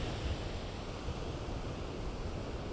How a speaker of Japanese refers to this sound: この綺麗なですね波の音がえちゃんと収録できていたらなと思います